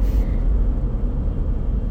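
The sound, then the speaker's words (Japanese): Steady low-frequency rumble of a car's interior while driving, a constant engine and road drone filling the space with no voices, loud and continuous throughout. “まあこういうふうに今ドライブ中なんであの耳寄り情報が入ってくるかもしれないですね”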